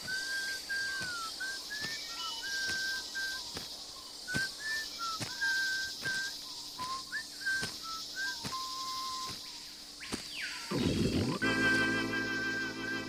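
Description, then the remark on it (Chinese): A person whistles a wandering tune of short and held notes over steady, evenly spaced, approaching footsteps and a constant high buzz of insects in the background sounds at the start of a song, before a louder burst and a sustained tone cut in. “嗯， 然后等一下大家还会听到的就是吹口哨的声音。”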